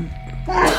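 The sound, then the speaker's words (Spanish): A single sharp sneeze bursts out, a quick inhale followed by a loud, breathy explosion that fades within a second. “Salud. Salud.”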